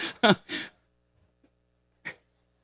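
A person coughs three times in a quick, harsh burst, then after a short pause gives one more cough. The coughs are fairly loud, with quiet in between.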